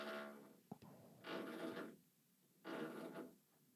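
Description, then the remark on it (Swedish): Hesitant drilling into a concrete wall: three short, tentative bursts of grinding rasp separated by pauses, moderately loud, with no talking. “Det är som att någon borrar i väggen och är rädd för att det ska bli hål.”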